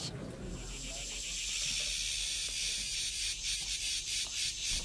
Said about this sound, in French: Elles sont arrivées, les cigales, elles sont arrivées, c'était dans le sud avec Bibop, mais elles sont sur la place Satonée maintenant. Avec euh, leurs petites ailes. Elles grimpent aux arbres. Elles sont jolies, elles nous regardent, elles chantent.